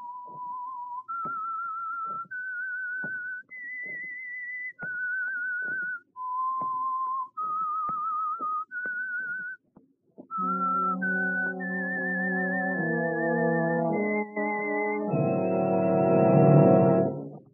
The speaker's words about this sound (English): The Signal Oil Program, The Whistler. That whistle is your signal for the Signal Oil Program the Whistler.